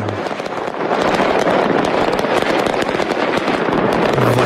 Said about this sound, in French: la fête également à Naples en Italie hier, mais pour du football, car le Napoli est champion d'Italie pour la première fois depuis 1990. C'est l'époque Maradona au pied du Vésuve, un concert de feux d'artifice.